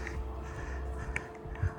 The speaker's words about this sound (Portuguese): paisagem sonora de hoje é, foi gravada a seguir à tempestade ter passado e os animais, os pássaros, os coelhos, os perdizes, as águias